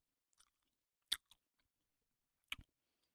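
Chewing of a strawberry: a few sharp, wet mouth sounds spaced irregularly across a few seconds, with two louder bursts and quiet pauses between, no talking.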